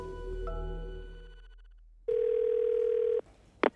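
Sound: telephone line tone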